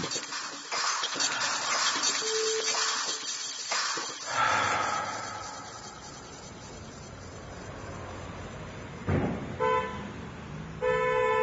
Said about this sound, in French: En pleine ville, entouré du béton et du vacarme, l'enfer du trafic parisien me rattrape, me submerge.